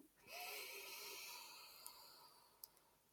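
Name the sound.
slow deep inhale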